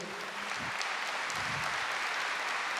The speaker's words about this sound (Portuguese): pode aplaudir.